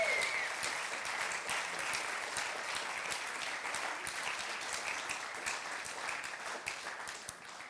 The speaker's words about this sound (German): Und ich finde, wir sollten ihr einfach mal, einen, gebt einmal einen Riesenapplaus dafür